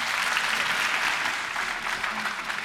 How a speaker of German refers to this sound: Bitte um einen Applaus für unsere Gäste.